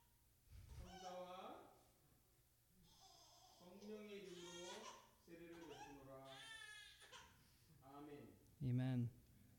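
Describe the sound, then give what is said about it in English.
An infant cries in loud, wavering wails that rise and fall over several seconds, with a sharper, louder outburst near the end, during an infant baptism at a church. “회개의 눈물은 아닙니다 지금.”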